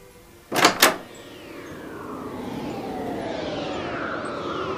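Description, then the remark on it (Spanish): A door is yanked open by a man holding a wood-chopping axe, with two quick, sharp knocks, then a steady rushing hiss swells and lingers, threaded with faint sliding tones. No one speaks. “Tomó un hacha para cortar madera y encaró hacia la puerta. Temblaba. Abrió de un tirón y del otro lado”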